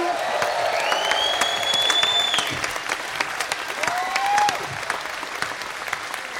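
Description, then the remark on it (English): An audience at a live show claps steadily and densely throughout for Nato Green, with a couple of rising whistles cutting through the applause, a high one early on and a lower one near the end. “Uh, give it up for the wonderful and massive Nato Green.”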